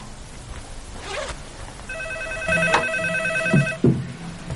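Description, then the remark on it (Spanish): A telephone rings with a steady electronic tone lasting about two seconds, clear, with light rustling and a couple of soft knocks and no one speaking; it rings in a living room and is not picked up in time. “Más tarde, Santi camina hacia el salón pero no llega a tiempo para coger el teléfono.”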